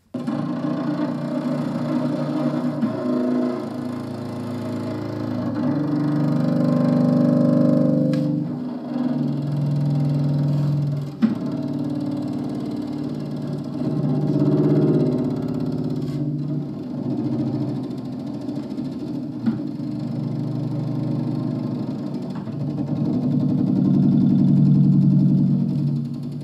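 An octobass bowed slowly by a man, its very deep, buzzing notes so low the strings almost rattle, droning in long sustained strokes that swell and fade, heard alone without any talking.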